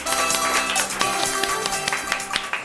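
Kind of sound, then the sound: crowd, applause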